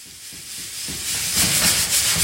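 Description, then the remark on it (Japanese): Coffee beans still high in moisture, swelling in size, crackle through their first crack while roasting, with scattered small pops over a steady, loud hiss of roasting that swells partway through. No one speaks. “なんかでも膨らんできた量が量が大きくなってきたいやまだこうピチピチ水分がはい、ありますよみたいな音なんだけど、うんうんうん、これ1回目のハゼるっていうう一ハゼっていうんだけど”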